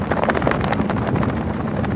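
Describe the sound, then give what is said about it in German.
Gale-force wind gusts roar and buffet a microphone outdoors in Scotland, with rapid, deafening flapping and rattling of an anorak and rain trousers and a distorted, overloaded rumble throughout. “Die Böen wüten jetzt mit Sturmstärke. Anorak und Regenhose knattern ohrenbetäubend, die Mikrofone verzerren.”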